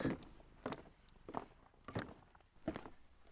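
Footsteps walk at an even, unhurried pace on a hard floor at home, about five or six distinct steps, each a soft thud, as someone leaves the fireplace to go open the door after a knock.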